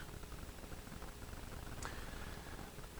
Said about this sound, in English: Can you hear my shoes? I got squeaky shoes.